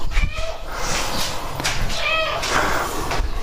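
A male cat meows twice for food as its bowl is readied, two drawn-out, insistent cries about a second and a half apart, over a steady low background rumble.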